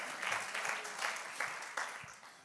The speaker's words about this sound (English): I want if we can take a moment and just clap our hands unto the Lord because it's not about us, it's all about Him. Amen.